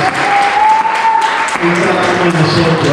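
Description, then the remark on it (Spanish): A church audience gives God a loud round of applause, a dense continuous clatter of many hands clapping at full volume, with sustained tonal notes, likely from an organ or keyboard, held underneath throughout. “Vamos a dar un fuerte aplauso a Dios por el buen futuro que tiene para nuestras vidas.”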